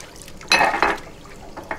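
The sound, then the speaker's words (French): Water splashes and runs into a sink in short bursts, with a brief clatter of dishes being rinsed and handled between the gushes as someone finishes washing the dishes. “Je finis de faire la vaisselle avant d'aller au travail. Je range mes couteaux et nettoie le l'évier taché de rouge.”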